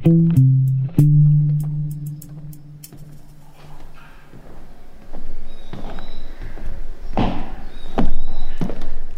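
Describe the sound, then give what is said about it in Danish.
Heavy footsteps of people stomping around thud and knock across a wooden floor in an irregular rhythm, growing louder toward the end, after a brief low droning tone at the start. “og man kan høre, at øh, vi måske tramper lidt rundt her. Det er fordi, der er trægulv her,”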